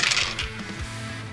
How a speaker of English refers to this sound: I gotta stop rolling dice. I got a nine.